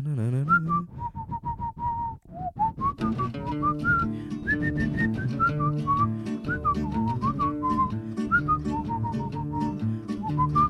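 A person whistles a lively melody over a steady instrumental accompaniment, the clear, bright notes gliding and stepping through a cheerful tune without any talking.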